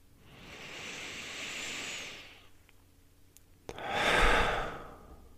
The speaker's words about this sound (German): Wir können einfach nochmal zusammen einen tiefen Ein- und Ausatmen nehmen. Und atme gerne hörbar aus. Okay? Geht los mit einem Einatmen.